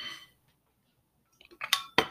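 A quick swig of water, heard as a few sharp clinks and knocks of a glass being handled and set down after a short silence. Nobody speaks.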